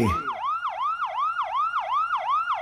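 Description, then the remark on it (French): A siren with a flashing light wails in fast, repeating up-and-down sweeps, about seven quick cycles, loud, steady and continuous with no one speaking over it. “Ah putain, Giro et Sirène, joli pneu.”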